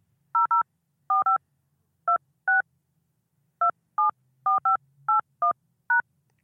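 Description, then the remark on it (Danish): A series of short, clear telephone keypad tones as a phone number is entered into an automated phone menu for a callback, about a dozen beeps in irregular groups, some quick pairs and a few single presses, with no talking. “Indtast det telefonnummer, du ønsker at blive ringet op på, og tast firkant.”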